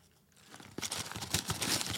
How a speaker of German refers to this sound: Du hörst es immer nicht, aber. Doch, ich hör's, hab's gerade gehört. Ich höre es rascheln.